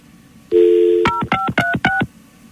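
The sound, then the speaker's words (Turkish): As a phone call is hung up and redialed, a steady dial tone gives way to four quick telephone keypad beeps, each a short two-pitch electronic tone in an even rhythm, loud and clear with no one talking. “Bir daha kapatıp arıyoruz sizi efendim.”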